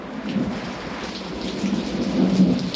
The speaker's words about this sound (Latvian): Tikai pērkons Latvijas debesīs.